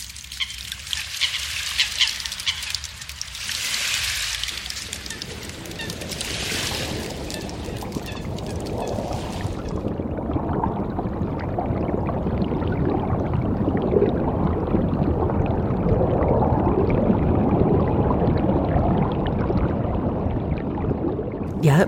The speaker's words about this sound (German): Erst hören wir mal einen kleinen Ausschnitt von dieser akustischen Rheinreise durch die Klanglandschaften des Rheins.